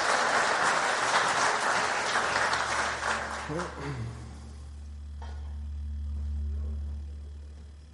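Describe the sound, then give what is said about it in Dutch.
An audience at a church service applauds for the preacher with dense, steady clapping for about four seconds, then the clapping fades out, leaving a low, sustained hum and a few faint sounds. “Zo Paul nog een applaus geven?”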